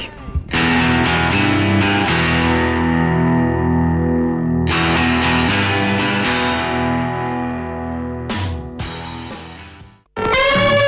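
A loud rock song with heavily distorted electric guitars and a dense, driving sound plays for about ten seconds, then cuts off abruptly before a short final burst.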